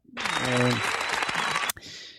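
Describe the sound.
A burst of dense clapping and applause lasts about a second and a half, with a brief voiced cheer at the start; it cuts off abruptly and is followed by a softer hiss.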